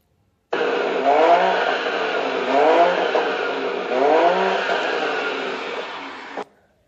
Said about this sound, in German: Drückt man jedoch kräftig aufs Gaspedal